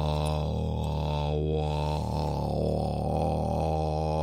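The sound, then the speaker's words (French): A low, steady hummed drone from a single voice, sustained for several seconds with slight wavering in pitch, fairly loud, a meditative vocal exercise sound meant to make the voice vibrate and carry further without tiring. “Alors ça fait une espèce de un peu méditation, vous voyez, un petit peu comme ça.”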